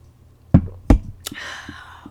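Two dull thumps, like a cup being handled, followed by a short airy slurp as someone sips a drink, then a few faint clicks. No one speaks.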